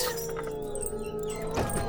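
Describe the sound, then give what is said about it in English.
Heavy metal chains rattle and bolts clank as the ponderous bolts of a door are drawn back and its heavy chains unhooked, a continuous jangle of iron with a sharper scrape near the end, no voices present. “proceeded in his stately way to the door, drew back the ponderous bolts, unhooked the heavy chains, and began to draw it open.”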